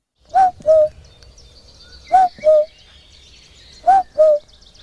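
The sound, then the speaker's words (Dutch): A person imitates a cuckoo, giving three clear two-note calls, each a higher note falling to a lower one, evenly spaced, in the Amsterdam Water Supply Dunes in the Netherlands. Faint birdsong chirps in the background. “Ja, dat was ik, die de koekoek nadeed.”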